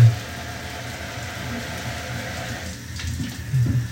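A steady wash of running water from a shower with a glass screen, spraying continuously, with a low rumbling undertone and no voices throughout.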